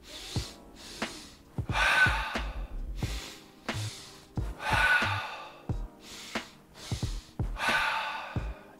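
Repeated physiological sigh breathing cycles, a stress-relief technique: two quick sharp nasal inhales in a row, about 80% then 20% of the breath, followed by a longer, breathy exhale through the wide-open mouth, fairly loud, repeated about three times with no talking.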